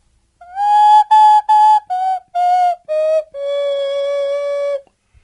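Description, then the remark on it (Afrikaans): A nose whistle, placed over the nose and mouth, plays a short tune: six brief breathy notes in quick succession, each slightly lower, then one long held tone that fades out. No one speaks. “Ek sit die fluitjie op my mond, dit wil sê my neus en mond, en dan blaas ek so 2 3 nootjies.”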